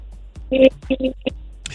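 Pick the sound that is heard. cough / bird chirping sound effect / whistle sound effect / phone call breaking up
phone call breaking up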